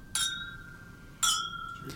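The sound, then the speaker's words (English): Two clear glass clinks about a second apart as glasses of Talisker 18 Scotch whisky are raised in a toast, each ringing with bright sustained tones that slowly fade, with no talking. “So raise your glass. And cheers to Jesus. Cheers.”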